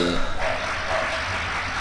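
dog barking

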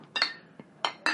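glasses clinking

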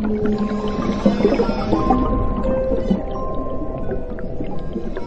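whale call

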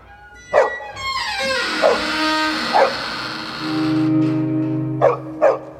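many dogs barking

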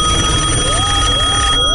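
old telephone bell ringing

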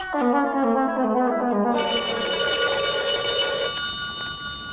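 telephone bell ringing

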